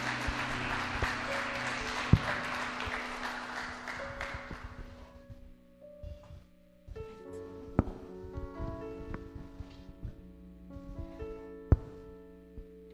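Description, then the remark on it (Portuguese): A church audience applauds to the Lord at a morning service as a deaconess is called up: a dense burst of clapping that fades after about five seconds, followed by sparse taps, shuffling and a few sharp knocks under a sustained organ-like tone. “Receba a serva do Senhor aplaudindo ao Senhor nessa manhã.”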